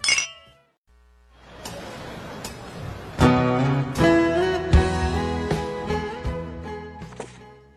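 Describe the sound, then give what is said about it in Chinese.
Glasses clink together in a toast with a bright, ringing chime at the start. A short musical jingle follows, punctuated by sharp struck accents, with no talking. “聊精酿，聊好酒，跟生活干杯！”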